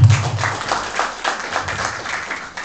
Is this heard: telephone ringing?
no